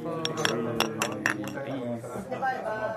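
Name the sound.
glasses clinking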